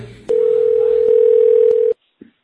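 signal or alarm, telephone line tone

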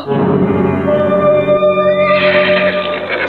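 animal, horse neighing

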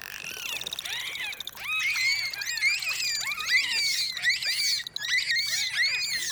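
animal, bottlenose dolphins chattering

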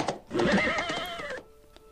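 animal, horse neighing

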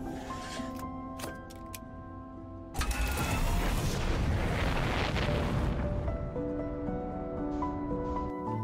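sound effect, video game explosion

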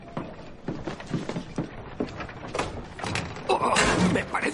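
household object, door opening or closing

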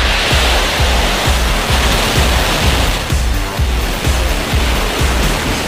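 sound effect, rocket launch roar

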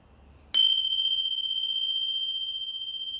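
signal or alarm, small meditation bell ringing

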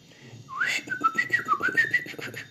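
bird, flock of birds calling

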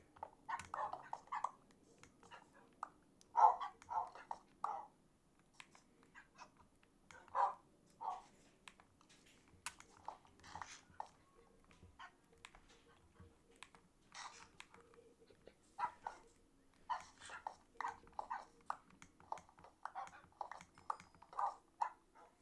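animal, dogs barking and whimpering

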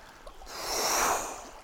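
nature, small waves lapping

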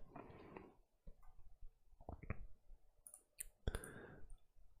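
household object, computer mouse clicks

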